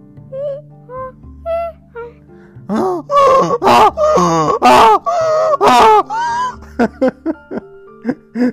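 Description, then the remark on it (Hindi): A voice imitates a donkey's bray: a few soft, drawn-out calls, then a run of loud, strained hee-haw bursts alternating rhythmically before trailing off into short clipped sounds. “खूब जोर जोर से आवाजें करता ऐसे गधे जोर से बोलते हैं वो किसान उससे बड़ा परेशान हो गया कि यार एक तो ये रात को दोपहर में वक्त बेवक्त ऐसे गधे गधे जैसी आवाज में गंदे से बोलता है कैसे बोलता था ये गधे की आवाज”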